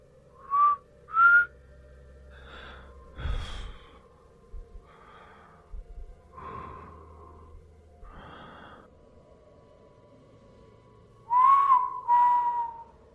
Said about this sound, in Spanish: Ninguno de los dos sabe silbar, así que es demasiado característico cómo nos saludamos.